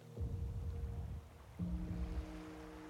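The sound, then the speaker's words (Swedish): Waves roll in against a shore in two swelling surges, a low, steady watery rumble that rises, eases off, then builds again, with no voices present. “och du vänder dig om och du hör ljudet av vågor som slår in emot en strand.”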